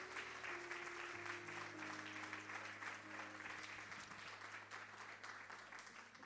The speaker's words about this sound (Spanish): ¿Cuántos dicen amén? ¿Cuántos le dan un aplauso fuerte al Señor? Vamos.